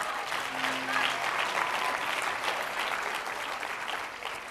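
Steady audience applause fills the whole stretch, a dense, even wash of many hands clapping at a fairly loud level that fades slightly toward the end, with no speech over it.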